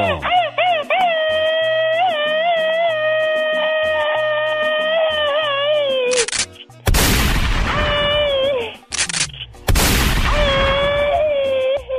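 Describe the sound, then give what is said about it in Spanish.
A long, wavering high-pitched yell gives way to two loud, rapid rattling bursts, a voice imitating machine gun fire, harsh, with a brief pause between them. “Échales un grito ametralladora, chamaco.”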